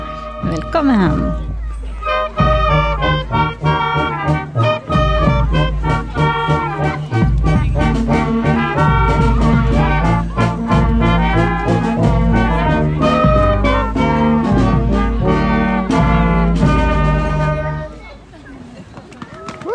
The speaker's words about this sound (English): That is the sound of the band Ringing in the holiday season during our recent neighborhood tanning.